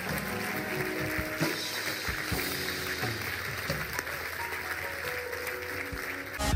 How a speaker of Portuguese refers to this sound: Será que podemos dar uma grande, grande salva de palmas?